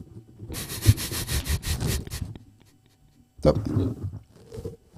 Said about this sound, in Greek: Α ας ακούγεται το χράτσι χουρούτσι στο μικρόφωνο, γιατί.